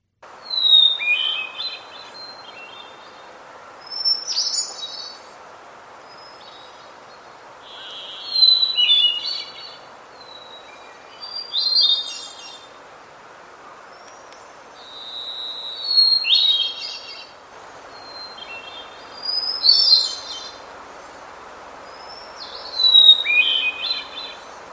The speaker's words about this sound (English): So uh, before I wind up here, I want to go ahead and I'll play each of those for you again. First, here is the hermit thrush.